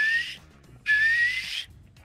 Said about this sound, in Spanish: Yo no sé si ya no existe esa bonita cultura de chiflarle al pinche cácaro, pero bueno, ya no hay cácaro. Pero pues esa, esa bonita cultura de empezar a chiflar. Funciona, amigo.